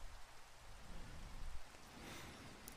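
Steady rain pours down in a soft, continuous hiss with a low rumbling undertone, fairly quiet and unbroken, with no voices present.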